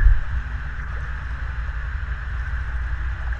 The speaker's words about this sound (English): And while I'm looking out, I can see these beautiful, huge mountains that encompass it sometimes the vision is so loud that I can hear the waves crashing along the shore.